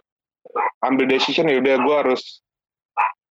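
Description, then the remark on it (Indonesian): A dog gives two short, sharp barks, one just before and one just after a stretch of someone talking; the barks stand apart from the speech. “aduh udah ada anjing lagi nggak apa-apa nggak apa-apa”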